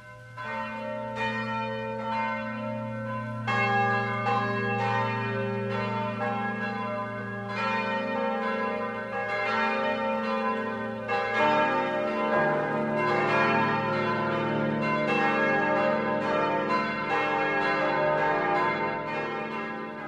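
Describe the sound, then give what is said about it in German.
Several church bells in Schopfloch, Middle Franconia, ring the noon peal together in a steady, overlapping peal, their deep tones and bright overtones blending into a continuous full chime that stays loud throughout, with no voices. “Das Mittagsläuten kommt heute aus Schopfloch in Mittelfranken.”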